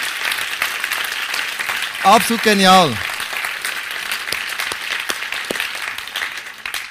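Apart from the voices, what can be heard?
audience applause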